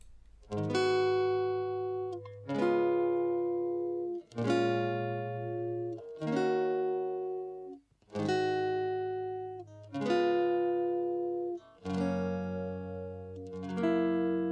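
A pop song's instrumental intro: rich, sustained keyboard chords struck in a steady pattern about every two seconds, each swelling and fading slightly, with no voices.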